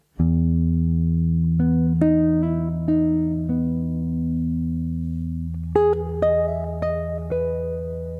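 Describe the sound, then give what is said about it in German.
An exotic pentatonic scale, with a large leap between the fifth and the major seventh, played on an instrument over a steady, sustained low drone: a short run of bright notes, a pause, then a second quicker run of five or so notes, with no talking. “Das interessante Intervall ist natürlich der große Sprung zwischen Quinte und großer Septime.”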